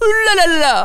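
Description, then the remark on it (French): A person imitates the cry of a Jawa from Star Wars with a quick, high-pitched, whiny sing-song chatter of gliding syllables, fairly loud for under a second. “Non, la la la, c'est le cri des Jawa par contre.”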